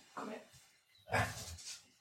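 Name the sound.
dog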